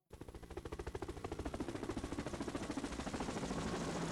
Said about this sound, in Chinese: 这天傍晚，螺旋桨的声音吸引着游轮上所有人的注意力。